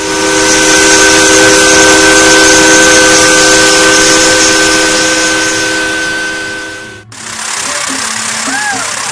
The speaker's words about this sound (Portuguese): o vapor começa a se movimentar e segue rio acima, despedindo-se com três longos apitos. Deve percorrer aproximadamente 155 quilômetros até Porto Amazonas, em velocidade de 6 km por hora, com força total da máquina vapor,